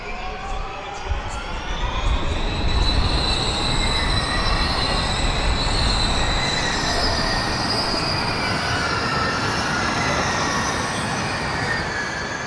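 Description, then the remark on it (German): A pack of Formula E electric race cars streams past a few meters away, one lap after the race start, high-pitched motor whines rising and falling over a steady rushing roar that holds loud for about twelve seconds. “die äh, Autos nach dem Start nach einer Runde quasi wirklich im Pulk wie eine, also ja, wie eine Perlenreihe aneinandergereiht an uns in wenigen Metern Entfernung vorbeigefahren sind.”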